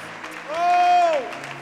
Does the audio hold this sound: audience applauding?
yes